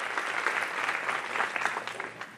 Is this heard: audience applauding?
yes